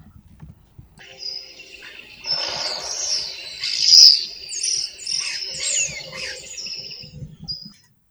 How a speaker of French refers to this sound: ce son de nature avec des, des chants d'oiseaux.